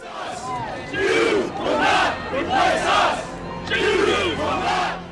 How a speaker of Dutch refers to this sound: Weet u nog, in Charlottesville in Virginia, augustus 2017? Extreemrechtse betogers riepen blood and soil bloed en bodem. Jews will not replace us.